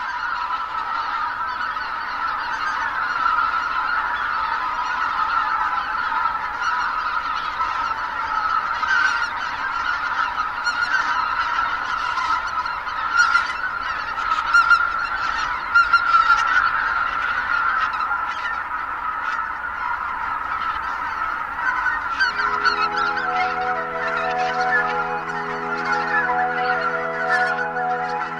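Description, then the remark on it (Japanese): A large flock of greater white-fronted geese, adults and juveniles flying in formation with adults at the front, honks continuously, a dense overlapping chorus of calls at steady volume, with soft tonal music rising beneath them in the final few seconds. “朝の小鳥今朝は魔眼が隊列を組む理由をお送りしました”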